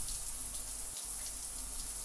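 Steady rushing spray of a shower running while a person soaps up, a continuous hiss with soft droplet patter throughout and no voices.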